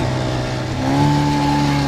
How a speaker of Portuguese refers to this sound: Os remos e os 40 homens que os trabalhavam foram substituídos por um motor que ajuda e muito a passar pelas ondas mais complicadas. Vamos aqui passar a arrebentação